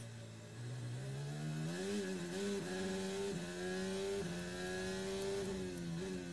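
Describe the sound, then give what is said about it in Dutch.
A Formula 1 car engine heard from onboard from the start of a race, loud, screaming upward in pitch with quick dips at each gear change as it accelerates; no one speaks. “Dit is gewoon puur de onboard.”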